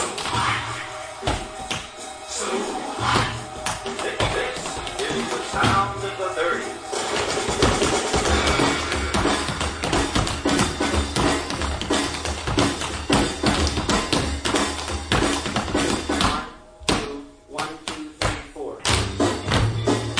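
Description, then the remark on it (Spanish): Rapid, crisp tapping of tap shoes on a hard floor in a choreography by a tap dance pre-company, dense rhythmic clicks and heel thumps continuing throughout, with music and a bright mix underneath. “Escuchamos la coreografía de la precompañía de Claqué”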